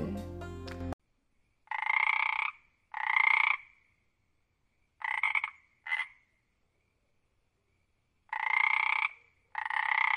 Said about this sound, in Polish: Potem było słychać kumkanie żaby.